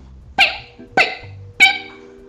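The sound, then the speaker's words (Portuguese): A person imitates a dog, barking three times, evenly spaced about half a second apart, each bark loud and harmonic with a quick decay, and no other voices in between. “Então Fofinho disse: Eu acho que eu sou um cachorro também. Eu sei latir. Olha só!”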